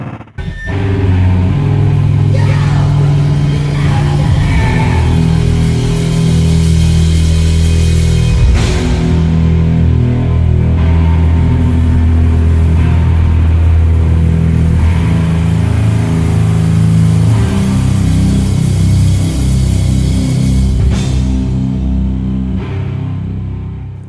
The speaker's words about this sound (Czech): a teď teda živá verze skladby …. Pust to tam.